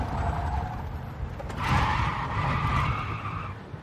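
A car skids around a corner, its tires squealing loudly in a sustained screech over a rumbling engine, with the squeal rising sharply midway and fading near the end.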